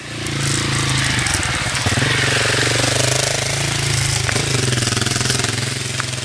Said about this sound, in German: Und da kommt ein Motorrad.